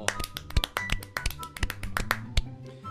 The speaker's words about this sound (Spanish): Un aplauso para el fracasado.